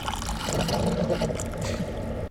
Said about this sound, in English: Uh, is that toilet flushing? Oh, no, that's, that's, that's the Keurig, coffee.